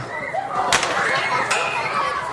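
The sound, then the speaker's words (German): Two sharp whip cracks snap about a second apart during a Klingnau custom in which schoolchildren are driven out of the schoolhouse, cutting through a busy background of voices and bustle. “Da klopft dann auch einmal die Peitsche.”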